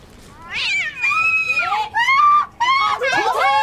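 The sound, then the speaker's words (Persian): A cat yowls loudly in a string of drawn-out, high-pitched meows that rise and fall, about five cries in quick succession over a faint background hiss. “آروم گربه است دیگه آخه جای گربه اینجاست”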